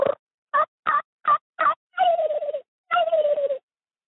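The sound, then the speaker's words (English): A person mimics a turkey with their mouth: five quick, clipped yelps in a row, then two longer warbling, rattling gobble-like calls, fairly loud with no talking. “Hey, I killed my bird in Tennessee last year just using my mouth.”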